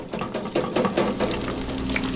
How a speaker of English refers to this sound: And these are them, bubbling in hot oil.